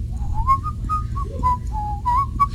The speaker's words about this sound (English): Yeah, and you know, I try to distract myself, like whistle or something, but you can't whistle with that in there. You all of a sudden you go from like whistling